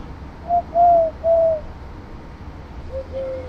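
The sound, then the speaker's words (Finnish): A man whistles and hoots at a female bird in a few short, steady notes, imitating a bird's call. The tones are clear and separated by brief pauses, ending with a lower, softer note. “naaras pällistelee ihmeissään, kun mä viheltelen tässä. Tai yritän huhuilla.”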